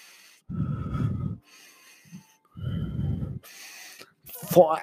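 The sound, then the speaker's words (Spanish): A voice imitates heavy, labored breathing: two long, loud rasping breaths with a short pause between, ending in a sharper gasp or snort, with no words spoken. “Entonces, algo que estoy muy seguro que me delató fue mi respiración.”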